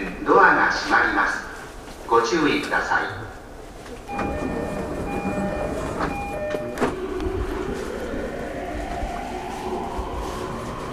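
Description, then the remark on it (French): A subway train in a metro station: brief voices at first, then steady chiming tones, followed by the rising electric whine of a train accelerating away, with constant station rumble underneath. “Je suis dans une station de métro”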